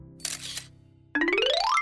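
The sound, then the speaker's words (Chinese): A soft camera shutter snap, then after a short pause a loud motorized whine that climbs steadily in pitch for about half a second before stopping. No voices. “她悄悄地拿起了相机，对准了他们。”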